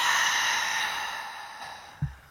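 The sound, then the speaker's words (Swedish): A long, steady breath out during a guided throat chakra meditation, emptying the lungs. It is airy and slowly fades over about two seconds, ending with a soft low thump. No one speaks. “Andas ut, tömmer.”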